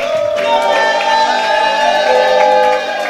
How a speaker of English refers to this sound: You want to give the Lord a mighty clap offering? Oh, give the Lord a mighty shout.